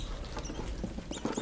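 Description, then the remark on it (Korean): Two or so mice rustling and scratching inside a wall closet, a soft, irregular patter of quick scrabbling sounds that continues throughout, with no one speaking. “그는 비스듬히 벽에 기대어 이것을 생각하다가 머릿속에서 무엇이 버스럭거리는 소리를 들었다.”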